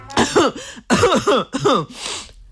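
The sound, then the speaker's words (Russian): A string of close, voiced cough-like bursts, about four or five in quick succession, ending in a breathy rasp; it sounds like a person acting out a cough rather than a natural one. “Роза кашляет, и соловей едва не проглатывает булавку.”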